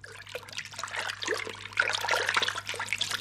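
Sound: flowing river water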